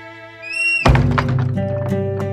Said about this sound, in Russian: выкрикнула женщина и, разозлившись, захлопнула перед ними дверь.